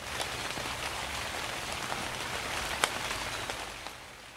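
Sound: rain falling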